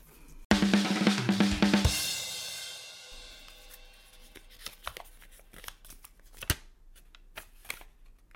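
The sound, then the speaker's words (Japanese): Paper entry slips are stirred together to draw the sixth winner of a prize draw: a burst of rustling, shuffling paper, loud for about a second and a half, then scattered soft crinkles and light taps trailing off. No one speaks. “まだたくさんあるのでこの中から混ぜて混ぜていきますよえー、12345だから6人目ですね6人目の当選者は”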